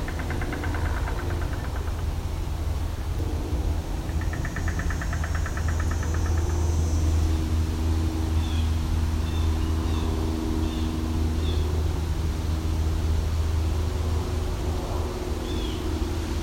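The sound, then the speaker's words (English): Loud cars and an airplane passing, a heavy, continuous low engine rumble with a droning hum that fills the whole stretch, while faint bird chirps slip through in the background. “Just had a train go by, now there's an airplane. Seem to be some loud cars too.”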